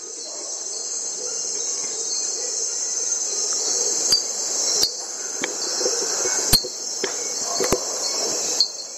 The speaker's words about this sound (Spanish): quieren simplemente escuchar los ruidos de la noche, escuchemos esta cápsula en Puerto Viejo, compartiendo el sentimiento de habitar en el bosque lluvioso a un lado del mar.